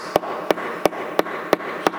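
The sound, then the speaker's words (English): Six sharp, evenly spaced knocks on wood, about a third of a second apart, each a crisp percussive rap over a faint steady background hiss. “Now, the way God works is God knocks.”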